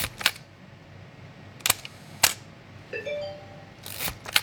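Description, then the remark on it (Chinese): A Nikon FM2 film SLR camera shutter fires at half-second speed: two sharp mechanical clicks about half a second apart, with other crisp clicks and a brief whirring tone around them, no talking. “我给大家举个实例啊，比如说尼康 FM2 的这个，嗯，一秒的快门速度是这样的，注意听啊，二分之一秒。”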